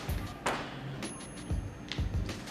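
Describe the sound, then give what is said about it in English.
Fireworks going off outside, a series of dull booms and thuds arriving at irregular intervals, fairly faint and muffled, with no voices heard. “But um, the fireworks made me lose my train of thought.”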